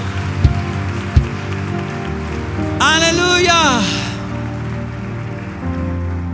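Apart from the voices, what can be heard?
audience applauding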